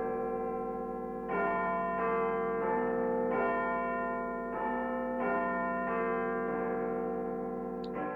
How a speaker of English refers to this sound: Let's try pressing that doorbell.